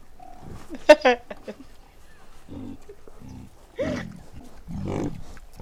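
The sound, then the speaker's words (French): A piglet squeals in a couple of sharp, high-pitched bursts, followed by lower, rougher grunting snorts spaced across the next few seconds, moderately loud. “C'est un cochon.”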